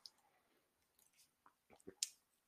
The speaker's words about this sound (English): One second, let me sip this water.